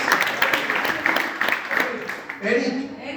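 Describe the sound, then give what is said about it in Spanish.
An audience breaks into a brief round of applause, a dense patter of many hands clapping for about two seconds before it fades and a voice starts speaking. “Muy bien, aplauso.”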